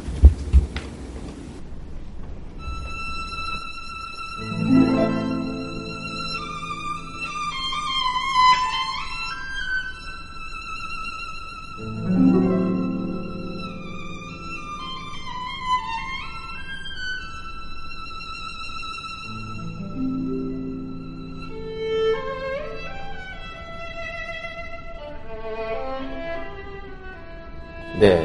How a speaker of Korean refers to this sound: 이번에는 어, 이 멜로디 아름다운 멜로디도 들어보시지만 예, 뒤에 하프에 나오는 하프의 변화를 한번 들어보시면 됩니 네.